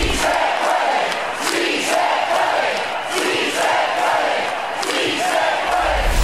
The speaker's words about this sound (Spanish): En China gritan eh, eh, chungo pillo. Chungo pillo. Chungo es China y pillo en realidad sería algo así como gasolina. Pero, pero, en realidad lo que quiere decir la frase es como échele China o pa'lante China o con fuerza China, ¿no?